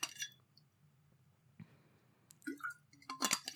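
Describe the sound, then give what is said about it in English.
Someone takes a drink of water: a glass clinks, followed by quiet sips and wet swallowing sounds, then a brighter clink as the glass is set down. No one speaks. “wait one second. I need water.”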